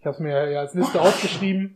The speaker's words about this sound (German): Gesundheit. Oh Gott, Entschuldigung.